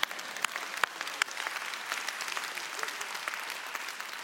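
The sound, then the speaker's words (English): An audience in a church worship center claps together in steady, dense applause lasting several seconds, with a few sharper claps standing out from the broad wash of hands and no talking over it. “If you're going to clap, sister, go ahead and clap. We'll all just do that together.”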